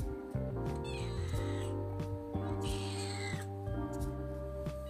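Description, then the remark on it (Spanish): A female domestic cat named Isis meows twice, each a drawn-out, rising-and-falling cry, clear over a steady low background hum. “Aló, mi gata, Isis.”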